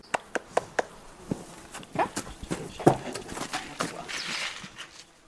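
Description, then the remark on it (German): Horse hooves clop steadily along at a walking pace, each step a sharp knock in an even rhythm, with a few faint snorts or murmurs mixed in; horses in the hill and valley landscape of the Bohemian Forest. “die nicht nur reitet, sondern eigene und fremde Pferde in der Berg- und Tallandschaft des Böhmerwaldes auch trainiert.”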